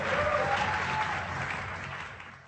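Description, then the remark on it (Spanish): A crowd applauds in a dense, steady wash of clapping that holds strong for about two seconds before beginning to taper off, with no speech over it. “Dense un fuerte, fuerte aplauso.”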